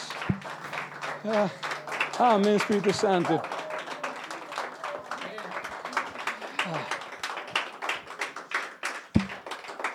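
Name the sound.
audience applauding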